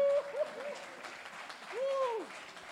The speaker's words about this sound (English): And look, I did it on time. Y'all give me a round of applause, boy.